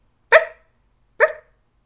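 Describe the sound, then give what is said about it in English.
A dog barks twice, two short, sharp woofs separated by a pause of just under a second, each with a bright, punchy attack and quick decay, with no talking. “就在这时候呢，从浓密的灌木丛里面传来了一阵脚步声，是一只狗狗，它把帽子咬在它的嘴里面。”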